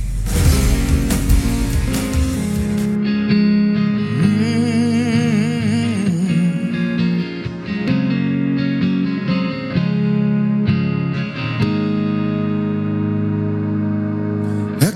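A rock song plays with loud, distorted electric guitars and a steady full-band sound, heavy effects and chorus-like shimmer over driving drums, continuous for the whole stretch with no talking.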